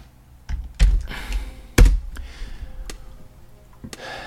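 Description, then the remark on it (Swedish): Scattered clicks of a computer keyboard and mouse while clicking onward through Wikipedia, in an irregular pattern of about half a dozen sharp taps, two of them noticeably louder, with no talking. “Och så jag wiki-klickar vidare på henne.”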